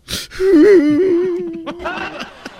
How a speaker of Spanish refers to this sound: ¿Por qué lloras?